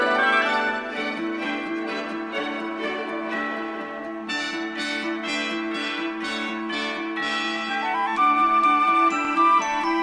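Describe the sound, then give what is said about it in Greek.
Church bells of the churches all over the town peal continuously in a joyful cascade, rapid overlapping strikes with rich ringing overtones at a steady, fairly loud level, with no voices over them. “Και τη μεγάλη του χαρά διέκοψαν μόνο οι καμπάνε των εκκλησιών που χτυπούσαν χαρούμενε σε όλη την πόλη.”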